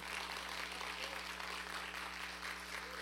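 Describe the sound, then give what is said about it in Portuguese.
A crowd applauds steadily for about three seconds, a dense, continuous wash of clapping with no pauses, a low electrical hum beneath it and no voices standing out. “Aplauda mais forte.”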